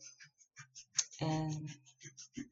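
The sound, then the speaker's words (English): A male cat bats a rattling toy around, making a steady run of quick, light clicks and rattles, with a single short spoken word cutting in partway through. “That's my cat playing with his toy.”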